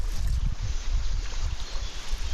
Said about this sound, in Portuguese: Num dia de muito calor, a temperatura estava mais amena junto ao rio. Navegamos pelo Taia, sempre acompanhados pelos sons dos pássaros e da corrente da água.